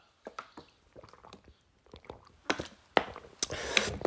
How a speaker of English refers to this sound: Hold on, I have to have a sip of water because I am parched, honey. Hold on.